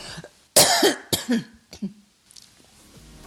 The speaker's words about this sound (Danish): Nej, altså, nu, jeg bliver altså nødt til at hoste igen, og nu lyder det højt, ikke?